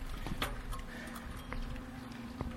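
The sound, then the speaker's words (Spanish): Wheels roll over small pebbles in front of a church, producing irregular gritty clicks and crunches over a steady low hum, with one sharper crack near the end. “Piedritas enfrente de la iglesia.”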